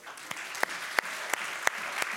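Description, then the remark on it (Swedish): An audience applauds the people who answered questions, in a steady, dense wash of clapping, with a few sharp, louder claps standing out at a regular rhythm about three times a second. No one speaks. “Vi ger dem en applåd.”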